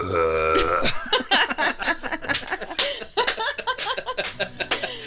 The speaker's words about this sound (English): Oh, If, if burping is the job, then I'll take it.